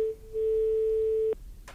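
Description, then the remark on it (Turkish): A steady telephone busy tone after a caller's line dropped, a single pure pitch that briefly dips then holds for about a second, ending abruptly and followed by a short click and faint noise. “Düştü galiba dinleyicimiz.”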